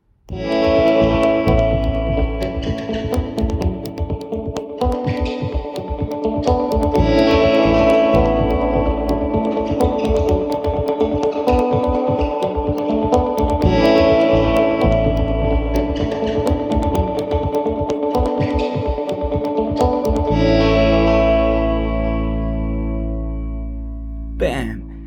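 A loud song plays throughout, with dense harmonic layers, a pounding low rhythm and effects-heavy distorted tones, ending in a sustained droning chord that fades out.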